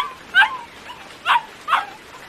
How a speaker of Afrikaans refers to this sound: Dis Jannie se hondjie.